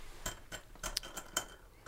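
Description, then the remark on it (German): Small coins clink together in a quick, irregular series of bright metallic chinks, about half a dozen light taps with no voices. “das Kleingeld, so.”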